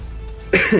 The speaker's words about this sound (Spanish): Había un momento en el que me ha dado un ataque de tos seca que, bueno, lo he pasado un poquito mal